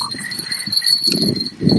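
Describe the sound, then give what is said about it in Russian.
Horses moving close by, going after fishing groundbait, with irregular low hoof thuds and shuffling that grow heavier toward the end, over a steady faint high-pitched outdoor hum. No one speaks. “Пока на мою прикормку покушается только лошади рядом, глядь.”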